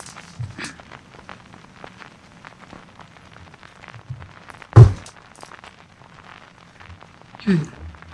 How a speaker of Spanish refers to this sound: Y este. Traguito.